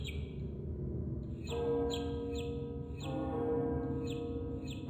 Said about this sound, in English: The bells on the tree, when they ring, sound a lot like a church bell in the distance.